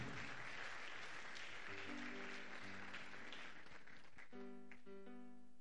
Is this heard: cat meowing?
no